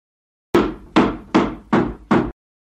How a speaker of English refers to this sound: why are you hitting that table with a hammer? Well, I got your message about flattening the curve, and then I saw that this table had a bit of a bump in it.